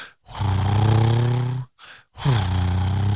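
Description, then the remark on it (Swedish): A man's voice imitates a motorcycle engine revving, making two long, loud, buzzing "vroom" sounds with a short grunt between them, alone. “Och ingen som sitter och vloggar och pratar och det är ingen jobbig musik och det är inga effekter utan man hör hur den åker och så hör man vrum, vrum, vrum, vrum, vrum, och sen från blinkersen”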